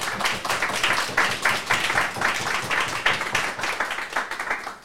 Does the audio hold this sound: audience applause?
yes